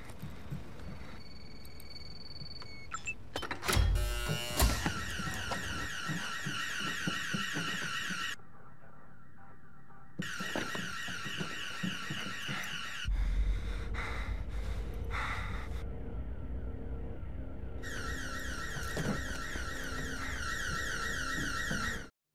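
Heavy, panting breaths run throughout, punctuated by a loud electronic alarm that blares in several long bursts with short gaps between them. No one speaks. From the first scene of the NRK series Valkyrie.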